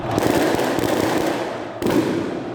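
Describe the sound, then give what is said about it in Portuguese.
Dense crackling fireworks burst continuously, with a fresh loud volley near the end, over a broad roaring wash of crowd noise as football fans celebrate outdoors in front of the main gate of the Morumbi stadium. “Os torcedores se aglomeraram em frente ao portão principal e fizeram a festa, com direito a bateria, fogos de artifício”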